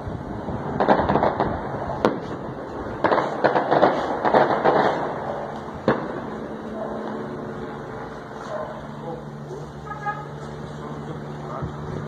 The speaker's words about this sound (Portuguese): Um morador enviou um vídeo da chegada do helicóptero. No vídeo, dá para ouvir o estampido de fogos de artifício. Escuta só.